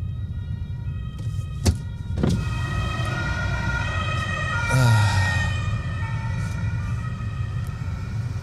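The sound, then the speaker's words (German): Sirens of fire, ambulance and police vehicles driving through a traffic jam hold steady, layered tones over a low traffic rumble, then sweep through a quick rising-and-falling wail midway. Two sharp knocks sound early on. “Feuer, Polizei, Feuer, äh, Krankenwehr und Polizeiwagen, Feuerkrankenwehrwagen.”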